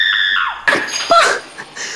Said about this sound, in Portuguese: Não basta o vidro pocando na parede dos outros, ainda chega gritando essa miséria.